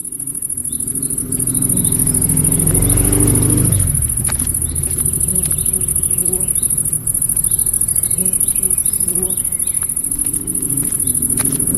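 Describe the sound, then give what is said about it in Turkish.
A steady, high bee buzz runs throughout, while a low motor rumble swells in the first few seconds and fades as it moves from right to left. Scattered soft footsteps tap along beneath it. No one speaks. “E, şu an dinleyeceğiniz örnekteki e, kayıtta amaçlanan arının sesinin sol kanalda, e, ayak seslerinin de sağ tarafta, motorun ise sağdan sola hareketliliğini hissetmek.”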